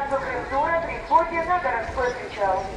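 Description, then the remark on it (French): A voice makes an amplified loudspeaker announcement on a beach about the next departure of an excursion, carrying over open outdoor space, its words blurred by echo, with a low background hum of activity beneath it. “d'ailleurs là, on entend une annonce sur la plage pour le prochain départ d'une excursion.”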